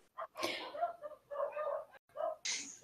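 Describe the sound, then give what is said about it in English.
A dog barks in a quick series of short yaps, with a couple of harsh noisy bursts mixed in between the barks. “Because bark, apparently.”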